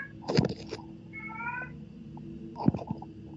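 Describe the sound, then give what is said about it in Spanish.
A cat meows twice, with a short plaintive call near the start and another about two seconds later, over a low steady background hum. “Puedo opinar el gato también, ¿eh?”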